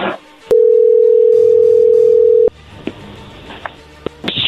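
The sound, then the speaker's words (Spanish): A steady telephone dial tone holds for about two seconds, then cuts off, followed by faint line noise and a few short clicks and tones of dialing a phone to set up a three-way call. “¿Puedes marcarle de tu teléfono para hacer el three-way?”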